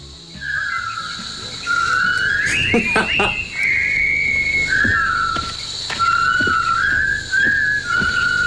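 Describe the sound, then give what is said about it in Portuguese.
A person whistles a film theme, with clear sustained notes that rise and fall through a simple march-like melody, a few light knocks and rustles in the background. “O meu objetivo era assobiar o tema do filme A Ponte do Rio Quai.”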